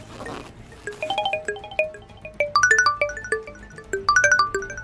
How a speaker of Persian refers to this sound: جنازش رو انداختم تو گودال و شروع کردم به خاک ریختن روش که دیدم از تو کولش صدای تلفن میاد رفتم سمت کوله و گوشی رو پیدا کردم